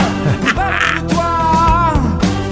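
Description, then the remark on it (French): A short, loud musical jingle, the presentation theme for Charles Le Cavalier's segment, with warbling, quack-like lead tones riding over a steady stepping bassline, lasting a couple of seconds with no voices. “Charles Le Cavalier, peut-être qu'on a ta musique de présentation là.”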